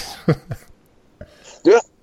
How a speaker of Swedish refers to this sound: du hostar lite eh, oregelbundet där.